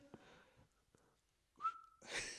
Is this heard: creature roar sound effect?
no